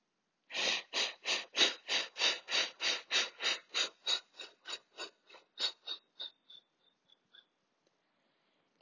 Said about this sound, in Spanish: Esta respiración la podemos hacer hasta 10 veces. En algunas ocasiones, haciendo la respiración de fuego, podemos observar que empezamos a sentir sudoración, ya que el cuerpo se está llenando de energía y calentando.